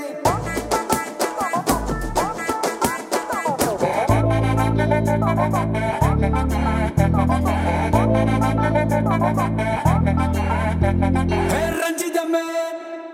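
A Tamil film song with a male singer plays loudly and steadily, opening with busy melodic lines before heavy, sustained bass chords and a driving beat fill the rest.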